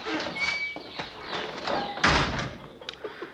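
A sticking door scrapes and grinds in its frame, then is forced shut with one heavy slam, followed by a few lighter knocks and rattles.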